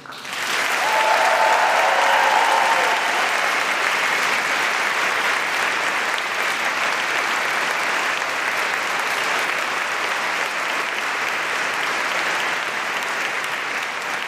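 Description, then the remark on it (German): An audience of an estimated 700 to 800 people in the large hall at the Westhafen in Berlin, at a live festival event, applauds steadily for about fourteen seconds, a dense, loud wash of clapping with a brief burst of cheering near the start. “hier im großen Saal schätzungsweise 700, 800 Leute und die wollen wir jetzt mal hören.”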